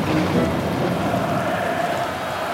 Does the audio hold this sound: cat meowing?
no